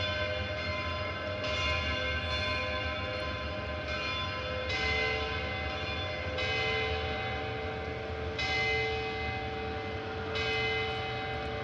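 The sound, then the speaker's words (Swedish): Bells ring continuously in a dense, overlapping peal, with fresh strikes landing every second or two over a sustained metallic hum. No one speaks. “Oj, nu ringer de in.”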